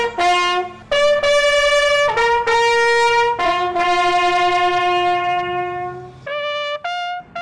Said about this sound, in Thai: พลสัญญาณแตรเดี่ยว เป็นสัญญาณว่า พระอาทิตย์กำลังจะตกแล้ว ทหารเรือคนใดที่ยังทำงานข้างค้างให้รีบทำให้เสร็จ ก่อนที่อีกไม่กี่นาที แสงอาทิตย์ก็จะเลือนลับไปค่ะ